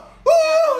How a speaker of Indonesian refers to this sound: ya Allah ini suara gue kenceng lagi gue takut ya maaf ya maaf ya eh maaf ya eh, eh, dosen eh, tadi gue teriak maaf